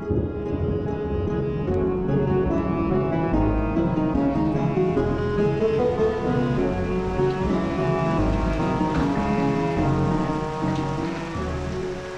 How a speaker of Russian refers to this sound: Свет ночника дрогнул, и за окном разразилась гроза.